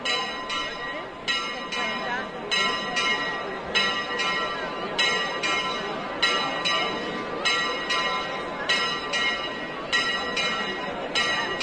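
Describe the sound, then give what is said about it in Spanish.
The church bells of the Purísima Concepción peal in a steady, repeating rhythm of bright, ringing strokes, layered over a constant low rumble of background noise and murmur. “Y replica las campanas de la Purísima Concepción.”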